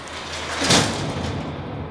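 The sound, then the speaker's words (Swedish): Heavy garage doors are dragged shut, a steady grinding rumble that peaks in one dull thud partway through and then keeps scraping on. No one speaks. “Och så drar de igen dörrarna.”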